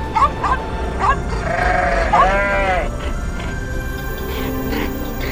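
A goat bleats in a long, wavering, nasal call, preceded by a few short sharp cries, fairly loud over a steady low background rumble with no talking.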